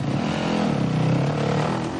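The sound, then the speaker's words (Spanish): A motorcycle engine revs as the rider sets off again, a steady throaty roar with rising and falling pitch that holds loud for the full two seconds, no voices present. “Tokio, enfadada y angustiada, da un golpe a la moto. Después, se baja la visera y emprende de nuevo la marcha.”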